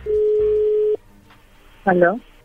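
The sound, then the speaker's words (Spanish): A phone line's ringback tone of an outgoing call: a single steady, mid-pitched beep lasting about a second, followed by a quiet pause and then a brief spoken voice. “Ok, le va a llamar el lobo, no haga ruido.”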